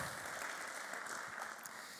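Audience applause fills the whole moment, a steady dense wash of many hands clapping at an even loudness, with no voices standing out.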